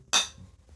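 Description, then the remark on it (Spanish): A single bright clink of glasses touching in a toast, with a short ringing tone that fades quickly. Fairly crisp, with no talking. “Un saludo por ti, güey. Salud.”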